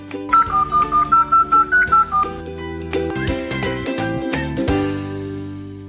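A rapid, evenly spaced run of about nine telephone dialing tones, followed by a bright musical jingle with layered chords. No one speaks.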